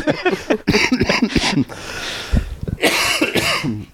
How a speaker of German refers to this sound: es wird nicht besser mit dem Husten.